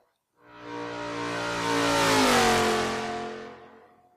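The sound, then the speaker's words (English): A car engine revs hard through loud exhaust pipes, its deep roar swelling and climbing in pitch before easing off, powerful for about four seconds with no talking. “see, that's, that's, the, that, that sound right there. Electric can't do, can't touch that.”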